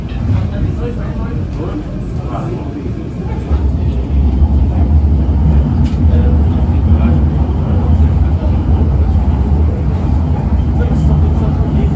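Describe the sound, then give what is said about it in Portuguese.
A metro train rumbles steadily at Redondo station in São Paulo, a loud, continuous low-pitched drone that swells slightly partway through. Faint indistinct voices are mixed into the noise, and an announcement tells passengers to exit by the doors on the right. “Desembarque pelo lado direito do trem. Exit train from doors on right.”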